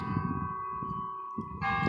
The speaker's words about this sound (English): and that's the church bell running ringing right now on campus.